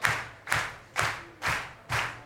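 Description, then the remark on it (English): An audience at a live music performance claps along in unison to a steady beat, five strong, evenly spaced rounds of hand claps about twice per second, full-sounding, with no voices over them. “But keep your hands together for yourselves out there, because we're all going to sing along.”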